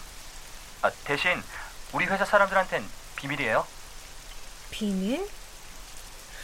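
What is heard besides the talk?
heavy rain pouring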